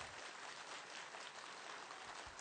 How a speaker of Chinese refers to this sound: 现在，我们请现场所有的嘉宾们起立好吗？让我们以最崇敬、最热烈的掌声，欢迎索达吉堪布仁波切进入会场。